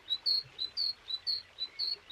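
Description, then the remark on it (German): A young tit chick peeps in a rapid, steady series of thin, high chirps, about ten short calls alternating slightly in pitch, alone against quiet background. “Die Meise piepst.”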